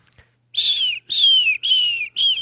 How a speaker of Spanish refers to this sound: Eso es golondrina, sin duda alguna.